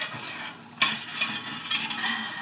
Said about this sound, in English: I've just been starting the day just kind of hoping to just get a good chunk of these dishes kind of washed